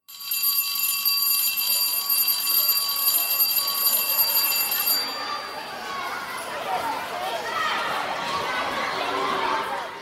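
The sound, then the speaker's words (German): A loud, continuous electric school bell rings for about five seconds, then gives way to the dense, lively chatter and shouting of a crowded schoolyard full of children. “Das erste klang ja so ein bisschen wie so ein Wecker und dann klang das für mich aber eindeutig nach einem rammelvollen Schulhof.”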